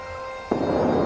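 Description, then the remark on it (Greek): A steady low hum gives way midway to a single distant explosive boom of fire explosions, which trails off into a broad, rolling rumble like far-off bursting thunder, with no storm to be seen. No one speaks. “Εκρήξεις φωτιάς και ακούτε και κεραυνούς να σκάνε που με δύναμη που να δημιουργούν και αυτοί τι ήχους εκρήξεων μόνο που δεν βλέπετε να έχει καταιγίδα.”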